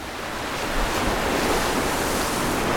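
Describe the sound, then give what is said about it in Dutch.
Heavy storm surf and wind at sea roar together in a dense, continuous wash of noise, with deep low thumps of water breaking underneath, loud throughout, heard at night on the deck of a ship. “S'nachts aan dek, als het stormt zoals nu, met die geweldige bonken van water”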